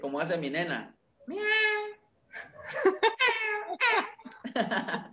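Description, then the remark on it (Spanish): A person imitates a cat, giving a couple of drawn-out, whiny meows between short bits of speech and light laughter, fairly loud. “Imita a un gato.”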